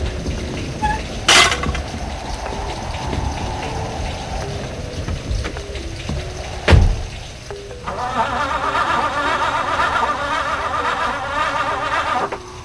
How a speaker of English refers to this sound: Oh no! The car won't start! Darn it! Start!